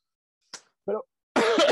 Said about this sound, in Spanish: bueno, en realidad, perdón, eh, la tos no es Omicron. y si lo fuera, sana distancia, ¿no?